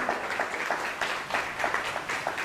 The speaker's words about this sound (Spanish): Pues dele un fuerte aplauso a esta dimensión de conocimiento, Baruch Hashem.